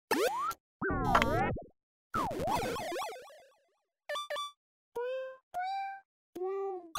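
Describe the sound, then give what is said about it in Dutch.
The startup intro of a Playdate handheld game console: springy, swooping synthetic glides and bursts, then a quick run of short, bright electronic chimes stepping through a little melody, clear, with no talking. “we hoorden de intro van Playdate”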